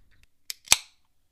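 A drink container cracks open: a short sharp click, then a louder snapping pop followed by a brief fizzy hiss that fades quickly. No one speaks.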